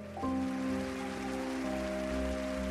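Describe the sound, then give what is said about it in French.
Studio audience applause for a woman guest before she leaves the studio, a dense, steady patter of many hands, with a sustained musical chord swelling in just after the start and holding underneath; no one speaks. “Le public lui offre une pluie d'applaudissements avant qu'elle quitte le studio pour rejoindre la place Maïdan.”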